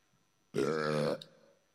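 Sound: burping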